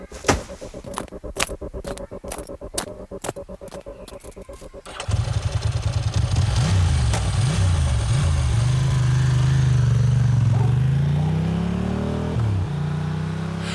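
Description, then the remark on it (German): A man's motorcycle engine sputters with a few irregular clicks, then roars to life, revving up and down before settling into a steady, rising drone as he rides off on it, loud. “Nachdem der Mann auf seinem Motorrad davongefahren war”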